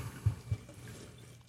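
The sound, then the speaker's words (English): Homemade wine poured from a bottle into a glass, heard faintly: two soft low glugs early on, then a quiet, steady trickle fading out. “I'm going to pour it,”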